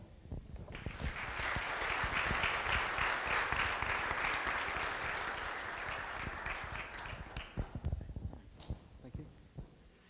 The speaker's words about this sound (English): Why don't you give him one more big round of applause? Everybody did a great job. And we're so thankful for them.